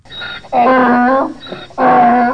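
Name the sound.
donkey braying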